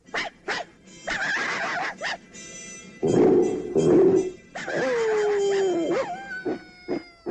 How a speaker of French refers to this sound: The humans have tried everything. Now it's up to us dogs. The twilight bark. A sound alert!